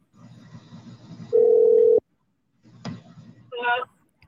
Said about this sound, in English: You calling her now? Let's, see if she pick up.